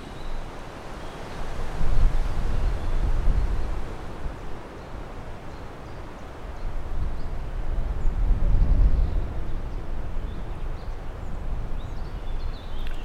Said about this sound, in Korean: 숲속에서 부는 바람 소리.